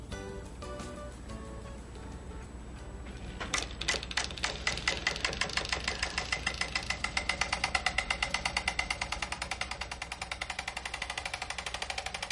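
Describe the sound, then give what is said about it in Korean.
A mechanical film projector clatters to life after a quiet few seconds, settling into a fast, steady rhythmic ticking and whirring that continues prominent, with faint music underneath at the start. “어디서든 이 소리만 들어도 영삭이란 걸 알 수 있다고 말하는 조르주 할아버지가 바로 첫 번째 주인공입니다”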